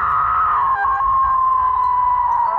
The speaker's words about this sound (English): She runs past the lobby, and now we can't see her anymore. Not even on the TV. We don't need it anymore, though. We can hear her screaming outside.